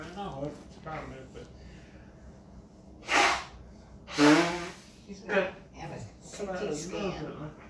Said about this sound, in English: Blow your nose. That's why I brought that there.